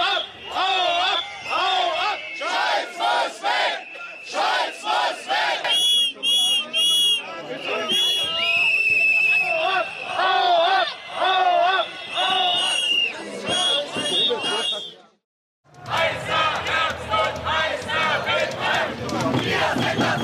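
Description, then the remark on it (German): A loud, agitated crowd shouts and jeers continuously, many voices overlapping with sharp whistles and rhythmic chanting bursts, briefly cutting out before the angry din resumes. “wir haben da so einen kleinen Vorgeschmack auf das gehört, was die Politiker zumindest mal erwarten oder einige von ihnen für diesen Herbst, nämlich großen Unmut.”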